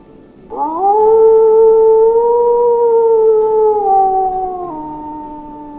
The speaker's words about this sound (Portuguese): E ele solta mais um uivo dessa vez. Ele fica nas duas patas e começa a uivar.